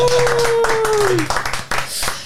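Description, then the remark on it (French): Audience applause for a show's second guest of the day, a dense patter of many hands clapping steadily for about two seconds, loud throughout, with a sustained tone sliding downward in pitch over the first half. “Un peu d'applaudissements, mais un peu moins fort quand même, pour notre deuxième invité du jour”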